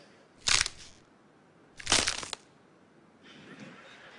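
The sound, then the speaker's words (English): Two loud, crackling snaps of celery or frozen lettuce being broken as a bone-breaking sound effect, about a second and a half apart, sounding like bones breaking, followed by a softer, fizzing crinkle. “The next one, it's breaking bones. Well, no one was really harmed. It's actually breaking celery or frozen lettuce.”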